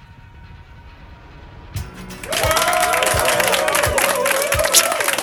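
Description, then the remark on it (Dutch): An added crowd sound effect for a home-made live album: after a quiet moment, a crowd erupts into loud cheering and applause that holds steady, a dense roar with regular low thumps beating underneath. “dan doe ik even het publiek erbij”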